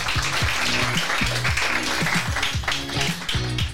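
An audience applauds loudly and steadily for a few seconds, a dense wash of many hands clapping at once, with some low tonal sounds rumbling underneath.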